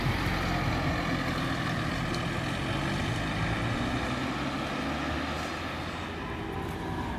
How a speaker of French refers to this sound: J'entends les bruits de voitures. J'entends le bruit d'un moteur.